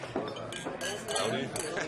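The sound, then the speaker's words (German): Beer glasses clink together in a toast, several quick bright knocks over a couple of seconds, with murmuring voices underneath. “Auf, also, Soferl. Zum Wohle.”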